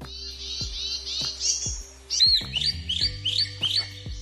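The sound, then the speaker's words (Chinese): A recording of a bronzed drongo calling, played on a computer audio player: bright, high whistled chirps, first a run of warbling notes, then a quick rhythmic series of about six repeated sweeping chirps, with soft low thumps underneath. “好，它就开始播鸟叫声啦。”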